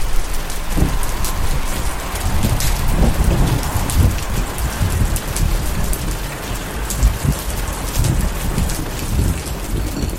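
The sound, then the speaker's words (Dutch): Heavy rain pours steadily and loudly, with dense drops pattering and low rumbling thunder underneath throughout the storm, no voices. “It's quite an effort to get there through this storm, typte ik nog.”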